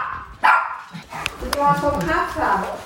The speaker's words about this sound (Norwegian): Rundt beina hennes tasser altså Dennis, den hvite, beige lille hunden som er en blanding av tibetansk spaniel og pomeranian, har en helt spesiell plass her i huset.